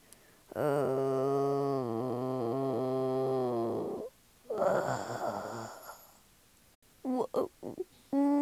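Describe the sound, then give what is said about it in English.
A voice imitates the loud snoring of a griffin fast asleep: a long, drawn-out rumbling snore, a second shorter one after a pause, then a few quick snorting bursts, prominent. “There was the griffin, fast asleep and snoring with the ox strapped by its paw.”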